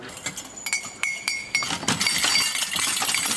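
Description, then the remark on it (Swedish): Small silver bells set on wooden Torah scroll poles crowned with silver crenellations jingle with bright metallic clinks, a few separate shakes at first and then a steady, continuous shimmering jangle as the poles are carried along, fairly loud with no talking. “Och alltihopa, rullarna kröns av, eller de sitter väl fast i eh, trästänger med fantastiska silverkreneleringar och en del av dem är klockor i också.”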